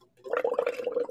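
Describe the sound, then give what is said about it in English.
A voice imitates the bubbling of a meth lab with a quick, wet, gargling burble that rises after a brief pause and churns steadily for about a second, fairly loud. “no no i mean we we had no idea you know that that was going on upstairs from us were you hearing like bubbles did it sound like this”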